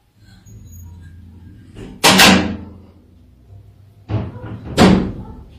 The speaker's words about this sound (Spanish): Este amigo de Viviendo de las Redes nos manda también un video donde pues se ve como que alguien abre la puerta, pero él está completamente solo.